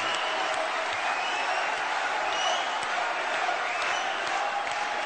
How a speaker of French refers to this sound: Vous pouvez encore l'applaudir très fort,